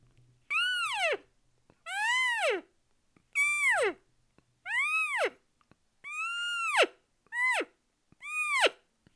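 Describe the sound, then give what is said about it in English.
A person sounds a cow call seven times: loud, high-pitched mewing notes that rise then fall, spaced about a second apart, with no talking. “Now do the cow call.”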